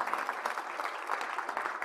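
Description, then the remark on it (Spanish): A church audience claps steadily in applause to God during a service, a dense wash of many hands striking at once with no pauses, holding an even loudness for the whole stretch. “Usted quiere darle un aplauso a Dios por eso.”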